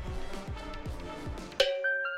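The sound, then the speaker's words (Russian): A steady thumping beat gives way to a bright, chiming electronic melody, a few clear sustained notes of an ice cream van jingle ringing out loudly on its own. “Это божественный звук фургончика-мороженщика, который доносится до ушей Леонардо.”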